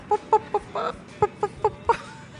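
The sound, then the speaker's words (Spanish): A chicken clucks in a quick series of short, nasal pulses, with a brief break partway through before the clucking resumes. The calls are moderately loud, with no talking. “Es un pollo, porque estamos en P de chicken.”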